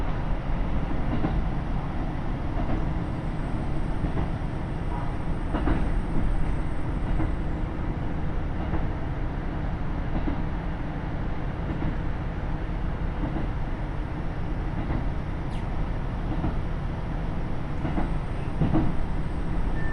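Steady, loud rumble of a KiHa 75 diesel railcar underway on the Taita Line from Mino-Ota to Tajimi, Japan, a constant low-heavy drone with faint rhythmic clacks of wheels over rail joints and no voices.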